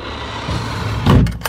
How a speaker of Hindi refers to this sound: दरवाजा खोलकर उसने अंदर कदम रखा सामने एक ड्रॉर खुला पड़ा था उसने ड्रॉर को बंद किया